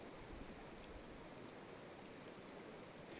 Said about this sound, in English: we're looking at this water entirely self organizing, entirely self purifying. This little river pulses from head to toe two or three times a day with entirely new content.